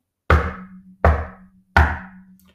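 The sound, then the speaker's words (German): Three heavy knocks on the front door of a house, evenly spaced about three-quarters of a second apart, each a loud dull thud with a brief ringing decay, and no voices. “Es dauerte nicht lange, da klopfte jemand an die Haustür.”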